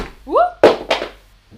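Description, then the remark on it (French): A mobile phone hits the floor with two hard clattering thuds in quick succession, the second a little weaker. A short rising vocal exclamation comes just before the impacts. “j'ai fait tomber mon téléphone.”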